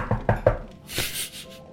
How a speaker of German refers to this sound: Ja, das kannst du laut sagen. Ich klopfe auf Holz.